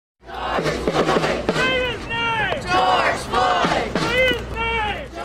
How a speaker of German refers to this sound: Sagt seinen Namen, riefen Hunderttausende Demonstranten Ende Mai überall in den USA.